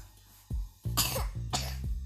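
A short fit of close-up coughing: two harsh, breathy coughs in quick succession, each preceded by a low throaty catch, with no talking.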